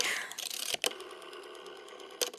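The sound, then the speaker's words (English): Old telephone switchboard clicking as a call from a rotary phone is put through by the operator: a fast, steady run of light mechanical clicks over a faint whirring hum, broken by a couple of louder, sharper clacks. No one speaks. “You hear clicking, old switchboard noise.”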